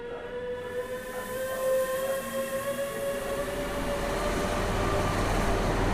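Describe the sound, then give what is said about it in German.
A train pulls into Frankfurt Hauptbahnhof, the main railway station in Frankfurt, after dark, its steady rumble building as several high, whining tones slowly drop in pitch while it slows. No one speaks. “Okay, zweites Mal heute Frankfurt Hauptbahnhof. Ich bin gerade angekommen, äh, jetzt ein bisschen spätere Stunde, schon dunkel und und und.”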